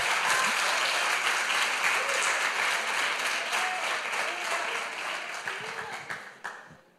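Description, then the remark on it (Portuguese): An audience applauds the Lord in a dense, steady wash of clapping that holds loud for about six seconds, with faint voices mixed in, before tapering off at the end. “Aplauda o Senhor mesmo.”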